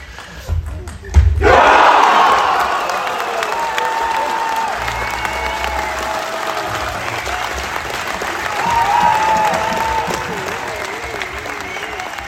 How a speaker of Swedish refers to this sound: Ni får lyssna vidare så kanske ni får höra lite klackljud. Så får ni bedöma om det är bättre än AIK och Djurgården.